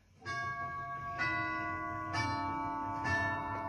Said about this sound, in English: That is the sound of freedom dying. Actually, it is the sound of freedom dying on my 1976 uh, bicentennial version uh, grandfather clock.